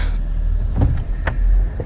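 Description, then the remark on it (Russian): A car's low engine rumble as the vehicle arrives at the Muranovo estate and comes to a stop, with a few short mechanical clunks and clicks near the middle; no one speaks. “пока Герман меня просвещал, мы приехали”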